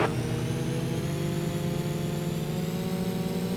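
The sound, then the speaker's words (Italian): Steady, continuous droning of racing engines at high revs in a racing video game, several motors of track traffic layered together in a constant whir with no pauses, loud throughout, and no one speaking. “C'è un po' di traffico come state notando.”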